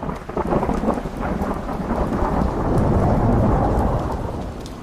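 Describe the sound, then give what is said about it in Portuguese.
Heavy, torrential, cold rain pours down steadily on the stone-paved street of Marguerite, a dense roaring wash with a deep rumble of thunder underneath, loud throughout with no voices. “As casas pelo caminho estão fechadas e os moradores que residem nelas se escondem da torrencial e gelada chuva que cai.”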